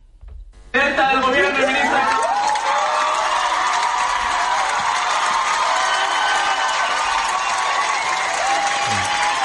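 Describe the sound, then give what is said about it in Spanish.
After a brief quiet start, a loud, sustained ovation erupts from a theatre audience in Madrid at a radio programme recording, greeting an unexpected guest, the politician Yolanda Díaz: dense applause with cheering and whooping voices rising over it, holding steady at full volume to the end. “esa, esa ovación es a un político.”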